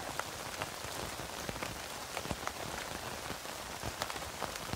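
Steady rain falls on a tent in a continuous hiss, with scattered sharper drops pattering on the tent throughout. No voices, just an even, moderately quiet wash of rainfall.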